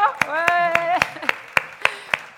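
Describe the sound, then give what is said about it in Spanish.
Steady rhythmic applause welcoming two doctors introduced as volunteers, about nine sharp claps at an even pace, while a voice speaks underneath during the first second. “Un aplauso”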